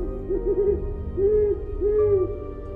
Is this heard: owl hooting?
yes